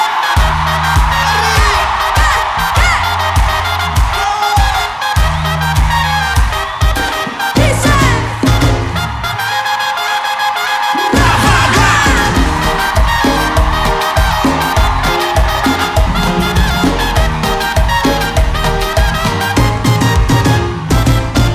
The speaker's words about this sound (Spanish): Quiero que todos hagamos palmas.